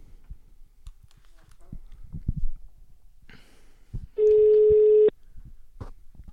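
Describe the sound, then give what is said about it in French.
A single long, steady ringback tone from an outgoing phone call to the person introducing the next segment, loud and even at a low-mid pitch, lasting about a second after faint clicks and rustling handling noises. “Et le prochain contenu est introduit par Raph de Monobloc qu'on appelle tout de suite.”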